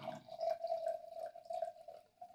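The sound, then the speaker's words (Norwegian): Wine being poured into a glass: a steady, gurgling stream with a ringing mid-pitched tone that lasts about two seconds, moderately loud, with no talking over it. “Her, jeg skjenker opp i det.”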